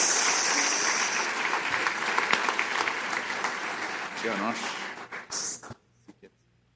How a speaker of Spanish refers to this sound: quiero que le recibamos con un cariñoso aplauso a Randall Díaz